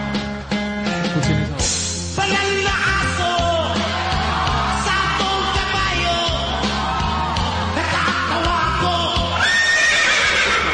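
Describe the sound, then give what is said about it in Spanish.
Loud horse whinnies ring out in a song over a dense, steady musical backing with a thumping bass, the neighing rising sharply near the start and again toward the end. “Y en el top número 2 tenemos a ….”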